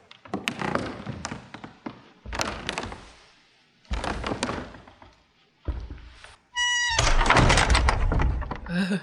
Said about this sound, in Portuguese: A porta abriu, mas ninguém estava atrás.